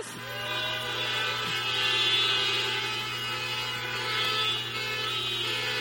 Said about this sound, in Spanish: Quiero que recibamos a mi hermanito con bocinas y todo de ahí atrás.